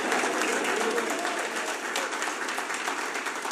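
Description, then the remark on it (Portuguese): An audience applauding Jesus at a morning church service: dense, steady clapping that holds at an even level for several seconds with no voices rising above it. “Você pode aplaudir a Jesus, você pode glorificar ao Pai aqui nessa manhã.”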